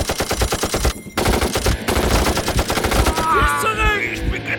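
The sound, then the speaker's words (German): Loud, rapid bursts of machine gun fire crackle in a dense, steady rhythm, broken by a couple of brief pauses, while other chirping tones rise in the background near the end. “Himmel, schieß zurück!”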